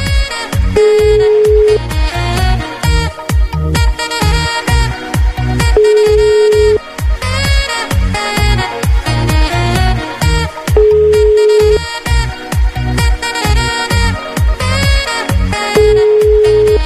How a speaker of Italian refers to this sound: È svenuto, ma poi quanti squilli fa sto telefono, scusate.